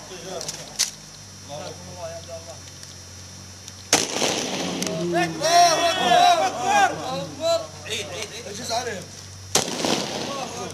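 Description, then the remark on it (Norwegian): Sharp, loud pistol shots crack out one at a time with several seconds between them during an execution in Syria, kneeling men each shot in the back of the head, with a reload before the end, while a man's voice and other voices talk in the gaps. “De knelende mennene forsøker ikke å komme seg vekk fra pistolmunningen én etter én får de et skudd i bakhodet.”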